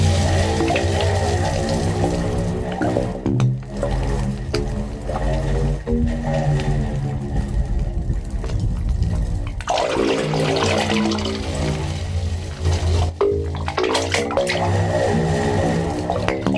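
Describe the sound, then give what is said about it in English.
Low, hollow tones swell and shift continuously as sea water surges through the pipes of a wave organ, with gurgling, rushing water throughout and occasional louder sloshes, steady with no voices. “Well, they say it's similar to the phenomenon of uh, when you put a conch shell to your ear.”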